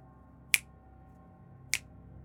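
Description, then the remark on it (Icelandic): A girl snaps her fingers twice, two sharp, crisp snaps about a second apart, over a quiet background hum with no talking. “Hún smelti tvísvar”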